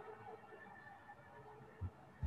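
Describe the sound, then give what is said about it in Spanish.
Fire engine sirens wail faintly in Quillota as firefighters respond to a fire, a steady rising-and-falling tone under background noise, with a couple of brief low thumps near the end. “Mira, hoy vienen sonando las sirenas, lo siento.”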